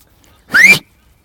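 A man whistles to call his dog: a single short, rising whistle, clear, lasting about a third of a second, with quiet surroundings before and after.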